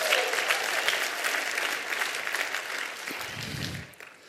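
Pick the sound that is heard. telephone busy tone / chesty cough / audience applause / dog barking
audience applause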